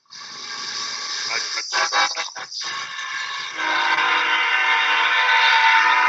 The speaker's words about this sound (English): you have to drink when the train goes by.